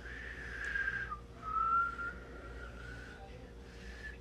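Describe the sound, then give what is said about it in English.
Someone whistles by breathing inwards, drawing out a thin, breathy, slightly wavering tone in a few sustained phrases with short breaks between them and steady background hiss. “I learned by li- uh, whistling inwards.”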